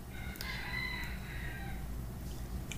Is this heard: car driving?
no